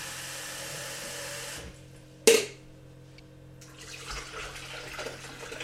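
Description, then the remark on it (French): Water runs steadily from a tap while coffee is being made at home around 1 p.m., then cuts off. A single sharp clink follows, and softer running water and kitchen sounds resume. No one speaks. “Je commence par faire du café.”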